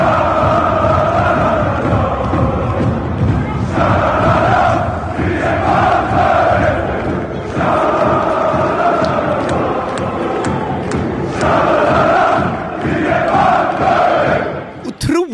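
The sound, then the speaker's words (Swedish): A large crowd of Malmö football supporters chants their version of a song in unison, loud and continuous, with the melody rising and falling in repeating phrases until the sound cuts off abruptly at the end. “Ja, men då kan vi väl lyssna vi på eh, Malmös, eh, Malmös version.”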